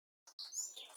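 Bright, high-pitched bird chirps and tweets, a brief call followed by a continuous run of twittering song, fairly close and clear with no talking.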